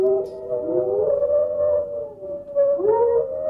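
A singing dog's drawn-out howl holds one steady pitch, with a second voice sliding up and down around it. Loud and continuous for a few seconds, with no talking.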